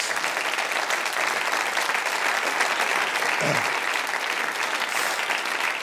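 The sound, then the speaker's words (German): Sustained applause from a church audience, a dense, steady wash of many hands clapping at an even loudness for several seconds with no voices standing out. “Und gebt dir mal einen Applaus”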